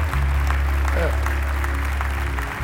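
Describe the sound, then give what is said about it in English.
A church audience claps to encourage people to come to the front, in a steady, dense wash of applause that runs the whole time over a low sustained hum, with a brief voice sliding through near the middle. “I bet if you clap, they'll come.”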